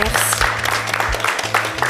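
Steady audience applause, a dense crackle of many hands clapping together, holding at an even loudness throughout with a low hum running underneath.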